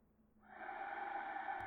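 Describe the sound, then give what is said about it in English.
A single drawn-out wheezing gasp heard through a window pane, starting abruptly and staying airy and strained, with a faint whistling edge, with no talking. “More than that, through the window pane, I could have sworn I heard a wheezing gasp.”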